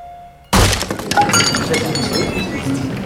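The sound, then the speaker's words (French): In a courtroom, a man slams a hammer into a shelf with a sudden, loud crash after a brief quiet moment, followed by a few seconds of shattering, tinkling glass and clattering debris. “Il vient de frapper l'étagère avec le marteau.”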